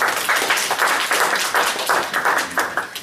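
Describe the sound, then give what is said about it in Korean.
A church audience at a Christmas-season worship service claps together in a steady, sustained round of applause for a visiting missionary, loud, with rhythmic bursts of many hands and no talking over it. “잠시 일나시면 박수 한번 할까요?”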